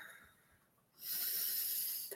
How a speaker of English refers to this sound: Mm, mm, just breathe. Breathe in that air.